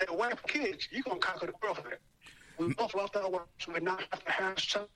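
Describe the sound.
A man talks over a phone line that drops out for a moment midway, his voice cutting off and returning with a brief burst of garbled, hissy distortion before the speech carries on.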